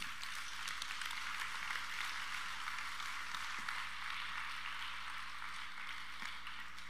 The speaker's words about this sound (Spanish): Dale un fuerte aplauso a todos.